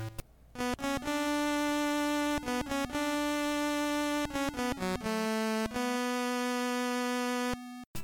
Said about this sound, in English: Obviously, the Game Boy can't play all those instruments at once, but the arrangement changes uh, for each new instrument. So here's how it sounds if you just have the cello and the horn.